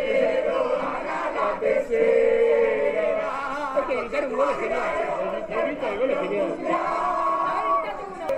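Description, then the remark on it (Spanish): A dense street crowd of Argentine fans in Buenos Aires celebrates Argentina winning the 2022 World Cup in Qatar, its third world football championship, with many voices shouting and chanting together in a steady, continuous roar of cheering and singing that never lets up. “Así millones de argentinos salieron a las calles a festejar el tercer campeonato del mundo de fútbol que esperaban desde hacía 36 años.”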